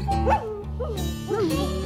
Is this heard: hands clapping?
no